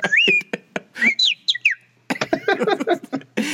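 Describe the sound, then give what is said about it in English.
A person whistles quick, warbling bird-like calls with sliding pitches and short chirps, imitating bird calls as a hobby, in bursts separated by brief pauses, fairly loud. “so what, what what was it made you think that you wanted to do bird whistling as a hobby, or you just discovered that you were good at it?”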